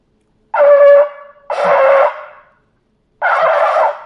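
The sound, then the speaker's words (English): Three loud, brassy shofar blasts, each lasting about half a second to a second and separated by short pauses, sounding raw with no talking, blown as a demonstration of longer and shorter crying sounds. “the blowing of the shofar must have a sound of crying”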